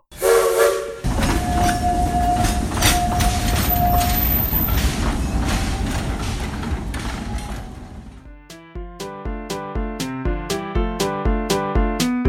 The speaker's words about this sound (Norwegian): Toget går nå.